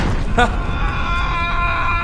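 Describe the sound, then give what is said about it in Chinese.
A loud, continuous roaring rumble as a Tesla car spontaneously catches fire and explodes in an underground garage in Shanghai, caught on surveillance, with a brief high-pitched scream early on and steady ringing tones running underneath to the end. “监控显示，一辆特斯拉车莫名其妙的就自燃爆炸，导致这车库里多辆汽车被殃及毁坏。”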